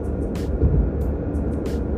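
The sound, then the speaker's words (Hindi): Steady low rumble of a car's interior while driving on the road from Muzaffarpur to Hajipur, a constant engine and road drone with a few brief hissy rattles over it; no one speaks. “अभी मैं गाड़ी में हूँ मुजफ्फरपुर से हाजीपुर के लिए जा रहा हूँ रास्ते में हूँ”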